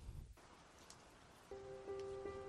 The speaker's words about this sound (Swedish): Kanske lite regn i bakgrunden. Regn som slår mot asfalt eller mot ett fönster. Det tror jag blir bra.